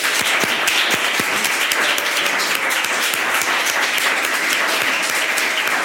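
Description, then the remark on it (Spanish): A live audience at the CIDOB, the Barcelona Centre for International Affairs, in Barcelona applauds steadily and loudly for several seconds, a dense wash of many hands clapping at once with no talking over it. “Y hoy con público, que se note ese público, por favor.”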